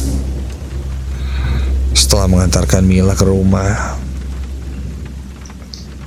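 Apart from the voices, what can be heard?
heavy rain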